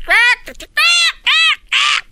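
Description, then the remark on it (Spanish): Cockatoos squawk loudly: four harsh, raspy screeches in quick succession, each about half a second long, with a brief softer chattering sound between the first two. “Después de ver estas cacatúas hablando mucho rato, para quitarse el estrés”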